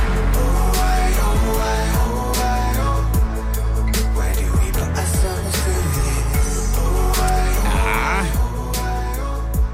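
A grime track plays loudly and steadily, with a deep, heavy bassline and punchy percussive hits driving a steady beat under layered melodic tones.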